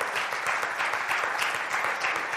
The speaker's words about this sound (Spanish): Oh, sí, denle el aplauso al Señor.